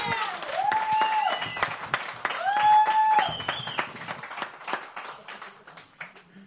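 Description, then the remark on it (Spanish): An audience claps steadily for several seconds, with two long, wavering tonal whoops riding over the clapping before the applause thins out and fades. “¡Un aplauso ahí!”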